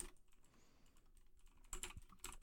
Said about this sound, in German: die Gerda tut auf der Schreibmaschine mitschreiben